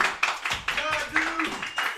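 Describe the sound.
Crowd applause, a steady patter of many hands clapping mixed with cheering voices and a few high whoops rising over the noise.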